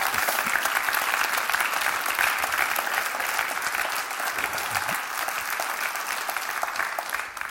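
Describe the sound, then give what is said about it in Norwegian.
Sustained audience applause, a dense steady wash of many hands clapping at an even loudness for several seconds, tapering slightly at the very end, with no talking over it. “Så gi dem en skikkelig applaus.”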